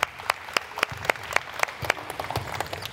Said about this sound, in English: Clap it up for him. Clap it up for him.